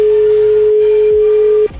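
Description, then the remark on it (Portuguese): A loud, steady telephone tone drones unbroken for over a second and a half as the phone operator fumbles the buttons, then cuts off abruptly, leaving faint background noise. Nobody speaks. “Ih, rapaz, estou me perdendo pro telefone.”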